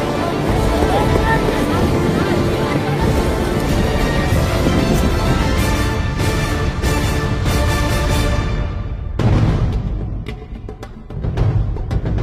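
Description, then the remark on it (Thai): Loud, steady roar of rubber assault boats' outboard motors racing across water in a military training raid, with buffeting wind noise, briefly easing off near the end before surging again. “โจมตีฉบฉวยด้วยเรือยาง”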